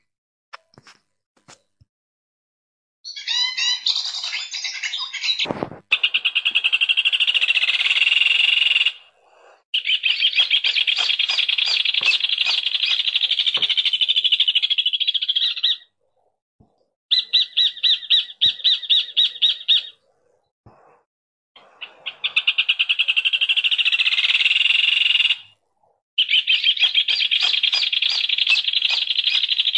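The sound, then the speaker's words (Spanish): Rufous hornero calls ring out in loud, rapid bursts of sharp, ringing notes, several long chattering runs separated by brief pauses, clear with no voices. “Estamos escuchando al hornerito, el hornero.”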